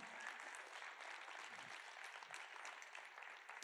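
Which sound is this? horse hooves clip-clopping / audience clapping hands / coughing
audience clapping hands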